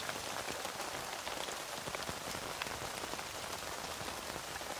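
Steady rain patters on a tent, a dense, continuous hiss of droplets with scattered sharper taps, even in loudness throughout, with no voices.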